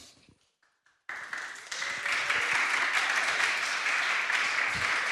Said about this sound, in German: Der erste Applaus. Der erste Applaus, den es jemals gegeben hat bei einem Sunday Morning.